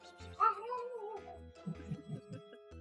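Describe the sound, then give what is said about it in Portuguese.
A female cat lets out one long, drawn-out meow, fairly loud, that slides gradually downward before trailing into a few short, low, rough grumbling sounds. “Olha o miado dela.”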